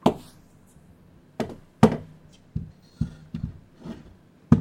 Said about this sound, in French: Tiens, euh, aide-moi à mettre la chaise sur la table.